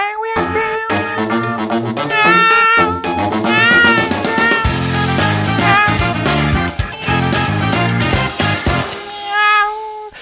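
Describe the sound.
A loud, operatic voice imitates a cat, singing long, wavering meow-like notes one after another over a busy musical accompaniment for the whole stretch, with no talking.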